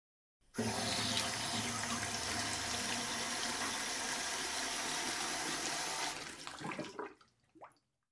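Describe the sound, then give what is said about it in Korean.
A kitchen sink faucet is turned on to check it while viewing a small apartment for rent, running in a steady, loud rush of water for several seconds, then shuts off, leaving a few faint drips and gurgles. “엄마는 집을 둘러보고 싱크대 물을 틀었다.”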